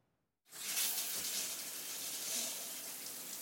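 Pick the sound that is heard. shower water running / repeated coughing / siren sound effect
shower water running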